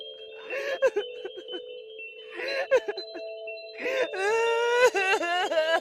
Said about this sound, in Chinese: 等了一段时间过后，我突然听到了耳边传来一个女生的哭声。